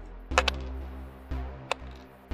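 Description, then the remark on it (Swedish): Two dice rattle and clack against a hard surface, a cluster of sharp little knocks followed by a couple of scattered taps as they settle, fairly quiet. “Då slår du ja. två stycken tärningar.”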